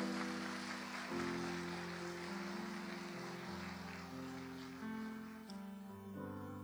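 An audience applauds steadily throughout, a dense crackle of clapping layered over sustained, shifting keyboard chords, with no voices.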